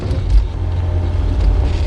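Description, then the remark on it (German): A chauffeured Rolls-Royce rolls over a rough gravel road full of potholes on the way to Cypress Canyon Drive in Malibu, a steady engine rumble with a couple of heavier bumps and jolts, no voices. “Mit dem Rolls-Royce ließ sich der erste Detektiv nach Malibu zum Cypress Canyon Drive chauffieren.”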